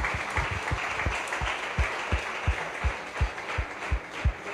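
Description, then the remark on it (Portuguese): Congregation applause: a dense, steady wash of many hands clapping, with a regular beat of stronger claps pulsing underneath at a brisk, even tempo. “Aplauda, Jesus.”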